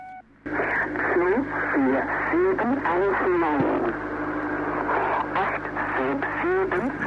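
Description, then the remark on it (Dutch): A shortwave numbers station: brief electronic tones forming a scale that rises in two steps and comes back down, repeated several times, then a distorted voice reading numbers in German through a steady wash of hiss and static, loud and continuous. “ik op een gegeven moment een, een toonladder tegenkwam die omhoog ging in twee stappen en weer terug. En dat een aantal keer herhaald.”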